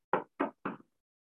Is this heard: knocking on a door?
yes